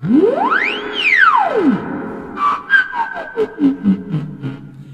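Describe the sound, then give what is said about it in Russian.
A theremin's eerie tone glides smoothly up to a high pitch and slides back down, then plays a run of shorter, wavering notes that step lower, as a hand moves in the electromagnetic field around its right antenna to change the pitch. No one talks over it. “И когда я вожу рукой в электромагнитном поле вокруг правой антенны, то я Мы меняю его чувствуем.”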